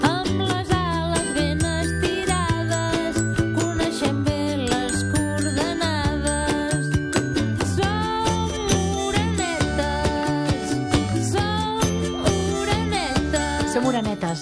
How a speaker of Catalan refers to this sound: I tot el disc, totes les peces, va, que són 11, eh, van lligades a les oranetes, als hàbits de les oranetes. Són cançons de música suau, feta amb instruments de joguina